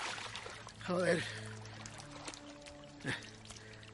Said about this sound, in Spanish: Sale del agua cerca de ….